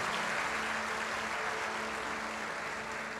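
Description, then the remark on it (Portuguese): An audience applauds the word of Jesus, clapping together in a steady, dense wash that holds at an even level for a few seconds, with no voices rising above it. “Você pode aplaudir a palavra de Jesus?”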